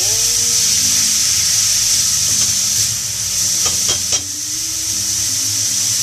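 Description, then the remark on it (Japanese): Minced meat sizzles steadily in a hot pan, a constant bright hiss with low rumbling underneath, broken by a few scraping clicks of stirring near the end. No one speaks. “割とひき肉もよく買うでもこれもよく悪くしてしまいます2日連続気づけばひき肉料理でした”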